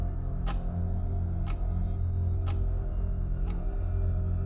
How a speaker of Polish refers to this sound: Nastaje głucha cisza, w której słychać tylko rytmiczne dźwięki wskazówki zegara.